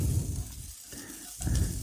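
Tomato paste and walnuts are roasted in one corner of a hot pan, sizzling steadily with a continuous crackling hiss that dips briefly in the middle, likely from stirring, then swells again.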